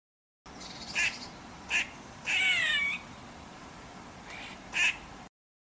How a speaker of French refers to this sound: J'ai googlé des bruits d'écureuils